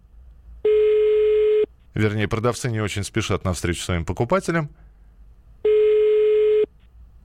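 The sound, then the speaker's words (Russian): A telephone ringback tone sounds twice, each a steady one-second buzz, with a man speaking in between, during a call to a seller of old Moscow metro signs; the call goes unanswered. “Ну, давайте еще один гудок, а если Иван трубку не возьмет...”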